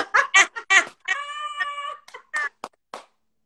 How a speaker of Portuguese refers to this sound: É uma galinha que tem aí? Galinha? Que galinha? Eu ouvi. Aonde? Ah, tem, tem, o vizinho.